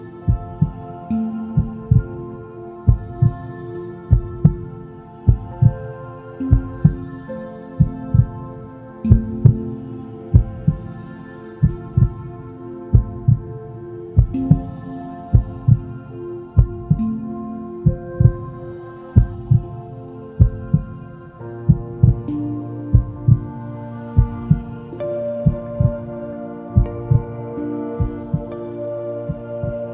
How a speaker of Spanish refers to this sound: Ahora te pido que lleves tus manos hacia tu corazón y escuches tu latido